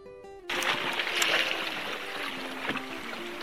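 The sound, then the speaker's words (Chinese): After a brief quiet start, the water of Erhai Lake laps and washes steadily on a dark night without lights, beside a bar at a filming location of the film Breakup Buddies, a continuous splashy hiss with small surges, and a faint low hum underneath. “洱海的声音听到了吗？”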